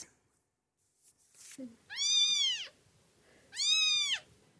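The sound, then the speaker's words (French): Two high, drawn-out meows from abandoned kittens at an animal shelter in Orgeval, Yvelines, France, clear, separated by a short pause, with a faint rustle and a brief low murmur before the first one. “Abandonnés cet été, ces chatons ont trouvé un nouveau refuge temporaire.”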